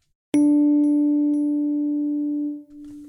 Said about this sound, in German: Dann ist das MIDI-Echo einfach nicht ganz so stark zu hören. So, was können wir noch einstellen? Wie viele Echos haben wir? Das waren jetzt gerade mal zwei Stück. Wir hören ja insgesamt dreimal den Sound.